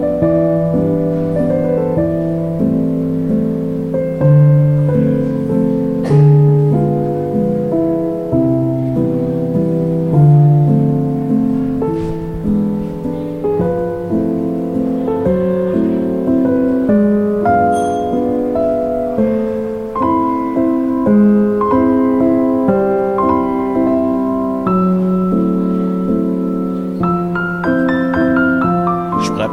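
A slow, gentle instrumental waltz plays steadily and up close, its warm melodic lines and sustained chords flowing without any voices over the full length.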